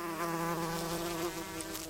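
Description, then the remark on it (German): Honeybees buzz in a steady drone that holds for a couple of seconds without a break, a continuous hum with no voices over it. “Bienen, die fleißigen Bestäuber.”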